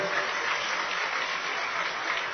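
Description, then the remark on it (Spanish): Steady, dense applause from an audience welcoming a kantele player, presented by the Embassy of Finland in Mexico, onto the cultural stage; a continuous crackle of many hands clapping at an even loudness for a couple of seconds with no voices over it. “El aplauso fuerte para él.”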